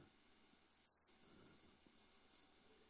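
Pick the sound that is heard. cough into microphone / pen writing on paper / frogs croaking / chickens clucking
pen writing on paper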